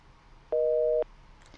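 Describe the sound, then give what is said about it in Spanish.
A single steady busy-signal tone from a telephone line after the call was cut off, a dual-pitched hum lasting about half a second, with a faint hiss before and after and a brief soft noise at the end. “Bueno, se cortó la comunicación. Se cortó, bueno.”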